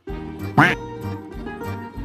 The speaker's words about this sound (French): Coin, coin.